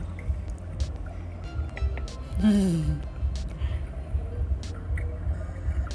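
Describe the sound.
A single short, bubbling human fart underwater, a wobbly gurgle lasting about half a second over a steady watery background, with a brief murmured voice.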